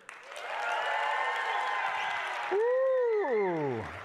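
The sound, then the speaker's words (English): An audience cheers and applauds loudly for a couple of seconds to vote for white meat turkey, then one voice rises above it with a long, sliding whoop that falls away as the noise fades. “If you think white meat is better, let's hear it.”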